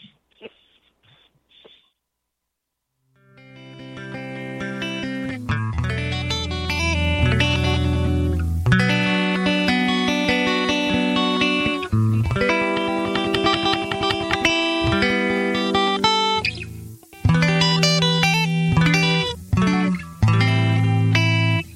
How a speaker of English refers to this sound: Here comes the music now.